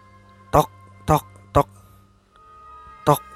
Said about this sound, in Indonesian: Selesai menelpon, tiba-tiba ada bunyi pintu diketuk